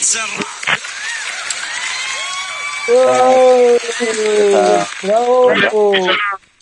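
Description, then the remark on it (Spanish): Badly edited, recorded canned audience applause played to welcome a guest on a show held over Skype during the coronavirus quarantine: a steady hiss of clapping with cheering voices rising over it, jumping abruptly in level partway through, as if clumsily spliced, before cutting off suddenly. “Por favor, recibamos como si se tratara de un público de verdad, no este público de mierda mal editado que vamos a poner ahora mismo”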